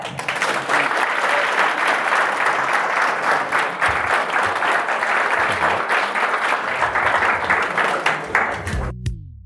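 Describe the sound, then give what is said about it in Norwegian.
Sustained applause from a sizeable audience of general practitioners after a talk, loud and steady, with many hands clapping densely for about nine seconds before it cuts off abruptly. “Jeg syns vi skal gi ham en applaus til.”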